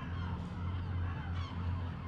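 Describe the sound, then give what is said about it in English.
Harsh, overlapping cries of seagulls fill the whole stretch, loud, with several birds screaming at once over a low, steady rumble and no one talking, recorded on Sanibel. “The screams of gulls permeate the audio.”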